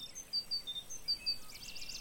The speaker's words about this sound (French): Cette mésange peut-être, avec sa robe jaune ses yeux comme maquillés avec un eyeliner. Vous la voyez Hop Elle passe derrière vous. Elle est partie vers la gauche.